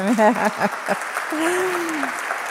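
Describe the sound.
An audience claps steadily throughout, a dense wash of applause, with voices calling out over it at the start and a drawn-out cheer rising above the clapping near the end.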